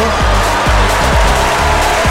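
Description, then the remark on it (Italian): Sustained, dense clapping from a crowd, dedicated to Sam DJ, who hosts the following show, during a Saturday radio broadcast on RVS, fills the whole stretch at a steady loud level, with a low, repeating musical tone running underneath it. No one speaks. “Approfittiamo per ricordare che chi seguirà la nostra trasmissione, ovvero Sam DJ, che salutiamo e al quale dedichiamo un grandissimo applauso.”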